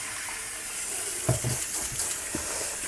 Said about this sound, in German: Ich äh, spüle gerade eine blaue Kiste aus.